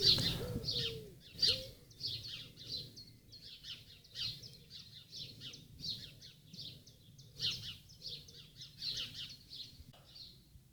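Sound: birdsong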